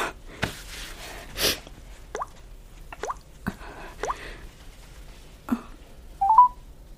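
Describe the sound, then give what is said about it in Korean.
A phone number being dialed to call a nursing home late at night: a series of short, irregularly spaced taps and soft blips, followed by a brief higher electronic tone at the end. No voices are heard. “네 마음이 정 그러면 일단 요양원에 전화라도 해보자.”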